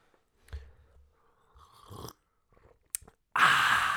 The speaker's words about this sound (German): Genauso muss man Tee trinken. Ja, ganz genau. Schlürfen. Schlürfen und dann.